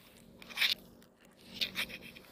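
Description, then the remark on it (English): Crunchy bites into a burrito in its wrapper, with a couple of sharp crackling bursts followed by softer chewing sounds, no talking. “Oh, now I'm biting into the other burrito.”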